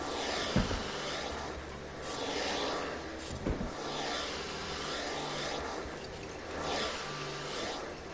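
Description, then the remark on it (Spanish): A woman runs a vacuum cleaner steadily, its whooshing roar rising and falling as it is pushed back and forth, with a couple of brief bumps along the way. “La abre y frunce el ceño al ver a una mujer de espaldas que pasa la aspiradora.”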